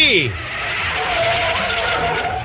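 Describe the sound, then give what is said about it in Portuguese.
A car skids to a stop, a loud, sustained rush of tire noise with a thin squealing tone lasting a couple of seconds, following a brief descending vocal sound at the start. “Eita, lá vem ele. Eu tô vendo. Eu tô vendo que é nosso carro mesmo. Deixa ele comigo agora. Stopping!”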